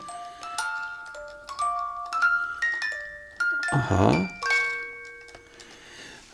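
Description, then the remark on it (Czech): A tinkling reed barrel organ (flašinet-style), turned by a hand crank, plays a simple melody of bright, sustained notes stepping up and down, with a brief voice interjecting midway while the tune carries on. “Já tady jeden mám. Ano. Takže se na něj můžeme podívat, jak hraje. Má kliku tak jako ten flašinet jasně.”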